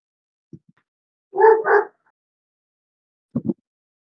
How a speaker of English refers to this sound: Shut up, my dog too. He's going crazy. Yeah, I got to take my dog out too.